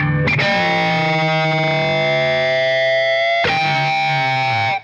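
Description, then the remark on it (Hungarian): An electric guitar played through a tube amplifier rings out two loud, sustained chords, the second struck about three seconds after the first, with a thick, saturated tone and no voices. “Ugye az, ez egy viszonylag azt egy ilyen csöves erősítő csinálja, ilyen nagyon tiszta, jó minőségű.”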